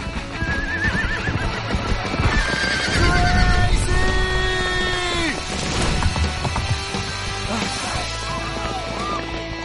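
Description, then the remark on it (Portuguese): A horse whinnies loudly, its shrill, wavering neighs rising and falling, while hooves clatter and a dense wash of outdoor noise fills the background. “Fala sério, de cavalo?”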